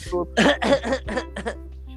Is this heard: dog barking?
no